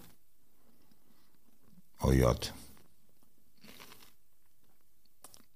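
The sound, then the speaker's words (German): A loud crunch of someone biting into a crispy snack, followed by a couple of softer crunchy chews, with a brief spoken exclamation. “Oder knusperst du zu laut?”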